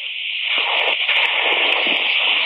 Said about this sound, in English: It had plenty of coils, all right, but it was strictly non venomous. The steam radiator standing there hissing my performance.